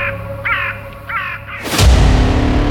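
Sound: birds calling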